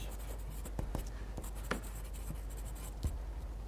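A pencil tip scratches steadily across paper, writing down English vocabulary words, fairly quiet, with brief sharper ticks and strokes scattered through a continuous soft rasp and a low background hum.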